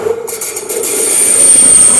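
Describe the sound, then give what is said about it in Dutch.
A loud, steady rushing roar of a passing train, with a grinding, scraping texture and a high-pitched whine appearing partway through, continuous. “Nog een trein.”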